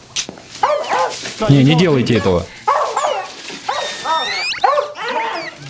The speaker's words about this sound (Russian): Она пищит, блядь, такая. А ты что, никогда не слышал, как собаки пищат?